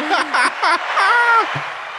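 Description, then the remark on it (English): An applause sound effect: steady clapping that fills the whole two seconds, with several rising, whooping cheers from voices on top of it. “Good job uh, we applaud you clearly.”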